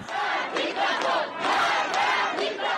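A large street crowd in Iran chants anti-regime slogans, including death to the dictator, loudly in unison during protests over the death of Mahsa Amini. Many voices rise and fall in rhythmic shouted bursts without pause.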